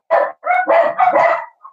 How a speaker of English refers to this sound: bloody dogs